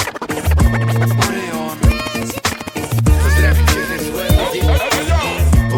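Turntable scratches cut rapidly back and forth over a heavy hip hop beat with deep booming bass hits, the scratching loud and upfront throughout with no vocals.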